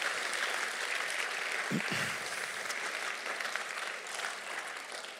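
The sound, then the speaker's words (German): A crowd claps steadily and fairly loudly for several seconds in appreciation of all housewives and mothers, a dense, continuous wash of applause with no voices standing out. “Wenn ihr dabei seid, dann gebt ihr doch einen fetten, fetten Applaus.”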